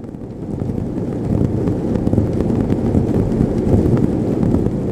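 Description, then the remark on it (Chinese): A sound sculpture by Zimoun, made of 210 motors linked to 40-cubic-centimetre cardboard boxes with cotton balls fixed by thread, fills the air with a dense, unbroken low rumble, textured by a rapid, crackling patter of countless tiny knocks that holds steady throughout, with no talking. “猜猜看，这个轰轰轰绵延不绝的声音是怎么样被制造出来的？”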